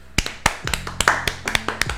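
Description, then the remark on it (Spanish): A short burst of clapping, about ten sharp, crisp claps at an uneven pace over two seconds, with no voices. “Un aplauso.”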